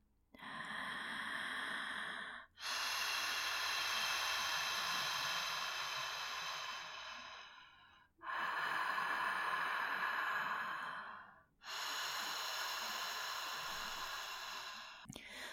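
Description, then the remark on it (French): A person imitates the sound of the sea and waves by forcing their breath: four long, forceful breaths rush in and out, each a broad hissing swell that rises and fades like waves washing onto a shore, with brief pauses between them. “Vous pouvez aussi imiter le son de la mer et des vagues en forçant votre respiration comme ceci.”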